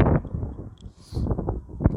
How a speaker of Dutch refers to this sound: Er staat hier heel veel wind. Ik loop heel even de hoek om.